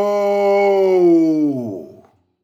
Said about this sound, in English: The spectral tyrant's scream shook the walls of the Star Theatre as it flailed at the soul of its host, trying to force it back into the woman's body and resurrect her.